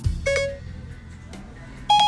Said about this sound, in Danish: Hvis du, øh, du, du kender den her lyd. Det er lyden af Siri. Øh, og øh, hvis du tror, at den intelligente Apple-computer kun registrerer, hvad du siger, når den her lyder på, jamen så tager du altså fejl.